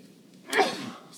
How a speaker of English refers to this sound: Excuse me, that must have sounded great. Um, for your listeners, allergies. This show is mainly us sneezing into this microphone and That's explaining the show.